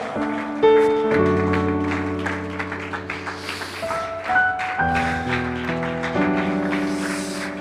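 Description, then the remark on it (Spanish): An audience claps steadily throughout in applause for God, the scattered applause mixing with sustained organ-like keyboard chords that shift partway through; no one speaks. “Oh sí, apláudale y celébrele.”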